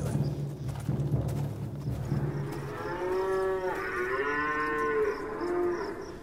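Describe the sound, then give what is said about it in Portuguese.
Oxen low in long, drawn-out moos that overlap during the second half, loud, preceded by a few seconds of low rumbling and faint clopping. “E esses bois são muito, muito sortudos.”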